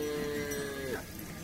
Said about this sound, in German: Die Hütten sind weitläufig umzäunt mit Ästen und Dornen. In dieser Umzäunung stehen Dutzende Kühe. Die Tiere sind ruhig. Die Rinder sind der einzige Besitz der Menschen hier.